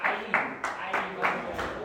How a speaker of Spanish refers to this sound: Quiero ah, ah, Quiero aplaudir? Aplaudí, dale.